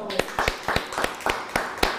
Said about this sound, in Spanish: Siga aplaudiendo.